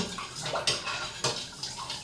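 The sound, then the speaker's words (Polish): Salted water sloshes and swirls as it is stirred in a large pot filled about halfway, with soft splashing and a few sharper clinks of a utensil against the sides, fairly quiet, no voices. “rozmieszam sobie wodę z solą.”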